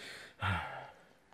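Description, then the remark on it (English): One heavy, breathy exhale, fairly loud, rushing out for about half a second and then trailing off into quiet background hiss. “the, the, the heavy breathing.”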